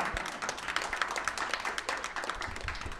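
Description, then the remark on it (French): A crowd applauds steadily, a dense wash of many overlapping hand claps that holds at an even, moderate level throughout without dying down. “Vous pouvez applaudir, vous ne retenez pas.”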